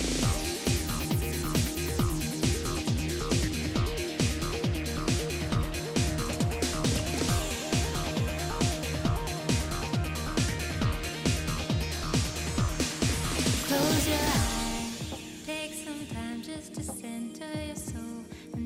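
An upbeat theme song from the PSP video game DJ Max Portable 2, with English vocals, loud and dense over a steady driving beat, shifting to a sparser, quieter passage near the end.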